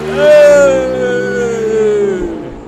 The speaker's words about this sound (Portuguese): É da moto. Essa foi fuderosa, hein? Essa é a moto mesmo do fim dos tempos.